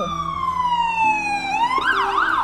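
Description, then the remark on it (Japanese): An ambulance siren sounds loud, its steady wail sliding gradually lower in pitch as it passes, then shifting into a faster warbling yelp near the end. “めちゃくちゃ 救急車が”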